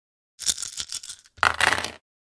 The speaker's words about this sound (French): Alors on va faire le jet de Ramrod en, de Ramrod en face. C'est là que tu lances 15 dés et que je me sens mal.